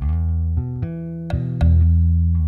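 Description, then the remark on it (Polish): A low, drawn-out stomach growl, rumbling steadily with a few shifts in pitch and small gurgling pops, fairly loud, with no talking over it. “burczy mi w brzuchu.”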